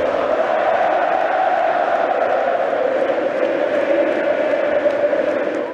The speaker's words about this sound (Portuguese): O que a torcida grita durante o jogo é mais que merecido, assim. No Mineirão, ele foi homenageado. O que, é que eles estão gritando aí?